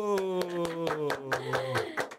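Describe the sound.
A steady run of sharp handclaps welcoming a nurse, roughly four or five per second, with a sustained voice or cheer carrying through underneath the whole time.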